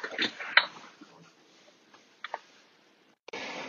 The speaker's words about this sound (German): So, ihr habt's klopfen gehört, da wurde ich kurz gestört, aber babam, jetzt geht's schon wieder weiter.